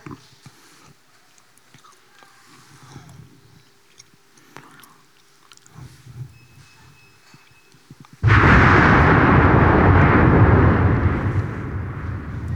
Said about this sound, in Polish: Y, to jest wybuch wulkanu, który dotyczy właśnie drugiego opowiadania z Octopussy, Goryl.